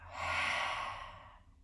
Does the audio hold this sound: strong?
yes